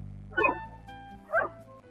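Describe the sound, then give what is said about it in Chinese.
A puppy named Tiantian barks twice, short high-pitched yips spaced about a second apart, over a steady low background hum with no talking. “每天晚上，调调就会摇着尾巴，蹦蹦跳跳的一路小跑，来到小山坡上的一座大房子前面，看望他的好朋友小狗甜甜。”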